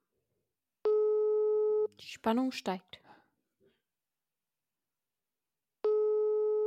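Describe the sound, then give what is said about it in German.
A steady telephone ringing tone of an outgoing phone call plays for about a second, then a voice speaks briefly in the silence before the same flat, harmonic ring tone returns. “Es klingelt.”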